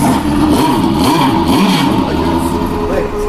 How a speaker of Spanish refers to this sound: Podemos tocar también este botón para escuchar un Porsche RS Spider.